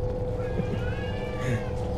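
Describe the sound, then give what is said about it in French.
Cats meow and yowl in drawn-out, wavering cries that rise and fall across two seconds over a steady low rumbling hum. No one speaks. “Ok, les chats t'attaquent.”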